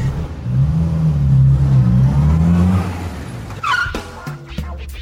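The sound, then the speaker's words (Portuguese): The 150-horsepower engine of a new Volkswagen Polo GTS hatchback revs hard as it accelerates at Velocitar, its rising drone loud for about three seconds before easing off, followed by brief tire noise and clattering. “Estamos aqui no Velocitar, onde a gente acelerou o novo Polo GTS.”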